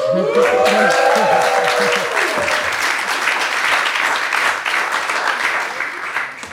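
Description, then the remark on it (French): A live audience bursts into applause, with cheering voices and whoops rising at the start, then steady dense clapping that continues loud throughout. “notre public en délire à qui je vais demander de se manifester, sinon on va me prendre pour un grand mythomane.”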